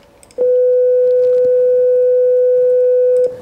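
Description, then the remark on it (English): A steady, pure electronic sine wave tone sounds loudly and evenly for about three seconds, unchanging in pitch, then stops abruptly, with faint background hiss before and after. “If you take a mathematically simple sound like a sine wave, which sounds like this,”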